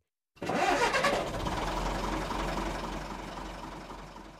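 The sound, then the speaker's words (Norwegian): A large bus engine cranks and catches with a loud, rough burst, then settles into a steady, throbbing rumble that fades slightly as it idles. It is a bus that is to go to Vikhammer. “Jeg sjekker AtB sine nettsider, og bussen skal ta meg direkte til Vikhammer 0819 sharp.”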